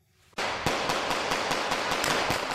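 A rapid string of sharp blank-pistol shots, about ten cracks in quick succession, fired by Turkish wedding guests from moving cars in the middle of Simmern im Hunsrück, ringing out over a loud, steady wash of street noise after a brief quiet start.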